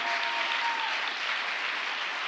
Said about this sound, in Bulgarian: О, камон, ако ръкопляскаш, ръкопляскай, като че наистина вярваш.